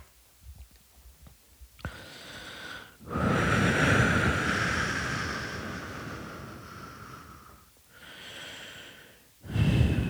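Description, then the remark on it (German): Heavy, drawn-out breathwork breaths, a long forceful exhale followed by shorter rushing breaths, loud and airy with no talking. “Bist du am äh, Breathwork?”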